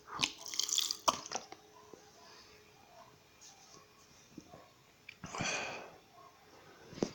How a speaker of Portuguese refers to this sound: Pera, calma. Bebe água.